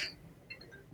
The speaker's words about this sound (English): oh my gosh sorry my phone started ringing there